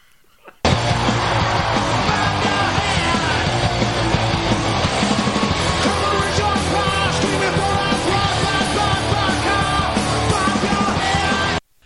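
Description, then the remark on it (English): A loud, dense burst of heavy metal: harsh screamed vocals over a wall of distorted guitars and pounding drums. It kicks in abruptly, runs nonstop for about eleven seconds, then cuts off. “So those lyrics are pretty to the point.”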